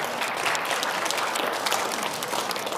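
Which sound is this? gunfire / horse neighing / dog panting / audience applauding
audience applauding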